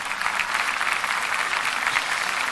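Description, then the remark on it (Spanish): A church audience applauds for God steadily, a dense, even wash of many hands clapping at once with no voices rising above it, holding at a constant loudness from start to finish. “Ese aplauso es para Dios.”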